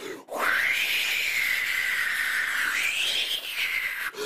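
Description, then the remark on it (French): A voice imitates strong wind, blowing a loud, steady whoosh for about four seconds that swells in pitch near the end before cutting off. “Puis il a soufflé très fort.”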